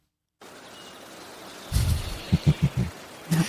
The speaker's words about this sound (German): Willkommen im Laubwald.